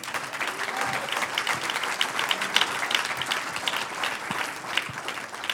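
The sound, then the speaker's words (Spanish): A church audience breaks into sustained applause for the Lord during a sermon, a dense, steady wash of many hands clapping together, holding an even level throughout with no voices standing out. “Un aplauso al Señor.”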